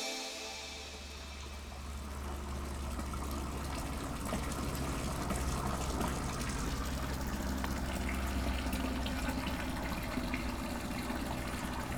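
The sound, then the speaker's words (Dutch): Steady splashing and gushing of water from a fountain bearing a text, in the first garden of the life gardens at Groot Hondschoten, continuous and fairly loud, with a low hum underneath and no voices. “En we komen bij een fontein waar een tekst bij staat die begint met kies kalm je weg te midden van het rumoer en de haast.”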